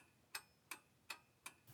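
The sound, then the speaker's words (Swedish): An old wall clock in a kitchen ticks steadily, four crisp, evenly spaced ticks at a slow, regular pace, clear with no one speaking. “Tickandet ifrån den gamla klockan på väggen, kluckandet ifrån den gamla kaffebryggan på bänken, knarret ifrån den gamla stolen hon sitter på.”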